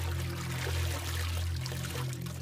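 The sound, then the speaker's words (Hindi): Water splashes and swirls continuously over a low, steady droning hum as a man wades into a pond to take a dip, with no pauses or voices across the short stretch. “हम पहुंचे उस तालाब के पास हमारी आंखों के सामने पापा उस पानी में उतरे”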